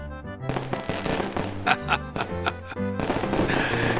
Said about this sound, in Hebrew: מרחוק נשמע הד פיצוץ, ואת השמיים האירו זיקוקים.